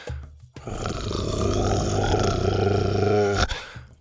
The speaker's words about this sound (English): When they reached it, Buck skidded to a stop and growled.